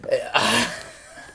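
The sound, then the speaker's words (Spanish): A single sneeze: a brief voiced intake, then a sharp, noisy burst of breath that trails off into quiet, with no talking around it. “Salud.”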